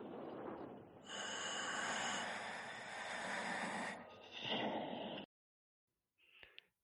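Close, loud scuba regulator breathing: a long hissing, whistling inhalation flows into a rougher exhale, then silence before a brief final puff of air.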